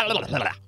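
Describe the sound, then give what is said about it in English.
A person voices a quick imitation of a gurgling stomach, one short wobbling, throaty burst lasting under a second, fairly loud, with no other sounds around it. “You see, what would happen for the next day and a half was that my stomach would be all like,”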